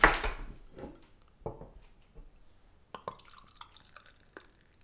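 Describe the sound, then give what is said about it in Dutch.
A freshly opened Rum Barrel Aged beer is poured into a glass, starting with a short rushing splash, then scattered drips and bright glassy clinks and gurgles, fairly quiet, with no one speaking. “En inschenken.”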